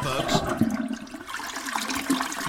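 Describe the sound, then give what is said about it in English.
A toilet flushes with a steady rushing and gurgling of water that fills the whole moment, while a man's voice briefly speaks over it. “That's the sound of 2020 going down the drain.”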